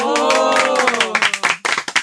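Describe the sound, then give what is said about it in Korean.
Brisk hand clapping, a handful of sharp, irregular claps in the second half, loud and dry, following a sustained, wavering vocal sound from voices at the start. “야 멋진 분이야. 박수.”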